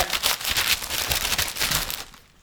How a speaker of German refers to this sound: Wir, wir, wir machen es jetzt eh immer sehr so übergangsmäßig, aber wollen wir zum ersten Mal rascheln, sagen wir so.